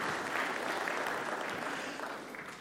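Steady applause from an audience, a dense wash of many hands clapping at once, fairly loud and sustained throughout before easing slightly toward the end.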